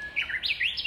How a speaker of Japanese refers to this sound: 鳥のヒーリングサウンドとともにお届けできれば嬉しかったんですが車の音だったりすいません